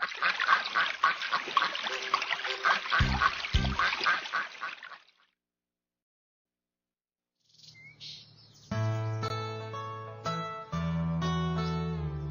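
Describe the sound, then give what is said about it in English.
A duck on a pond quacks in a rapid, raspy flurry of loud calls for about five seconds. After a brief silence, steady sustained tones follow. “A duck is on a pond.”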